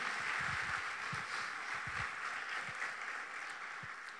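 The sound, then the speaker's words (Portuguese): An audience applauds God for a powerful word from the sermon. The clapping is a steady, dense wash that holds at a fairly even level for the whole stretch, with no one speaking over it. “Mais uma vez, aplauda Ele por essa palavra poderosa.”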